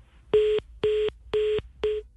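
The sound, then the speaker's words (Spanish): A phone line to Governor Carolina Córdoba, speaking from Quibdó, goes dead into a repeating electronic tone: four identical beeps, evenly spaced about half a second apart, steady and fairly loud with no voices. “Se fue, es la gobernadora Carolina Córdoba hablando desde Quibdó esta mañana.”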